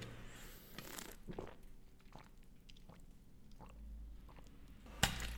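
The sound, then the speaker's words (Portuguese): Someone drinking water from a 1.5-litre plastic bottle: a series of soft gulps and wet mouth noises at uneven intervals, with a sharp plastic crackle near the end. “Vou puxar de uma água litro e meio e vocês vão me ouvir a beber.”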